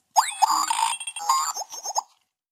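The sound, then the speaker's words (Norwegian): A brief, busy jingle of cartoonish sound effects: bouncy boings, pops and bright bell-like tones in quick succession, lasting about two seconds with no voices. “Ja, men da, må vi ha ny jingle.”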